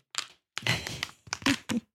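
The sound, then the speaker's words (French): Sealed book chapters being torn open by hand without a paper knife: four rough, rasping bursts of ripping paper, the middle one longest, separated by brief silences, with no talking. “Donc sans d'ailleurs coupe-papier, je vais essayer d'en décrocher un.”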